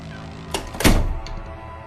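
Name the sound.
door being shut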